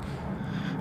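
A steady, rumbling drone of an airplane overhead, a continuous low roar with a broad hiss above it, holding even loudness throughout the brief moment with no voices.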